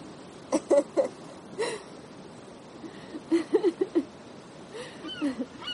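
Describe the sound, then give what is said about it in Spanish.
A seagull calls in short, squealing bursts, a few quick cries at a time with pauses between, over a soft, steady background hiss, on a sandy beach on a hot day as the gull flaps above a rock. “Él sonríe, pero se gira serio al escuchar a la gaviota.”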